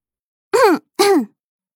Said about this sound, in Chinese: 稍微咳嗽了几声之后，说道：